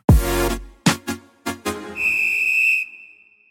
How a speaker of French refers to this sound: On l'écoute après ce jingle.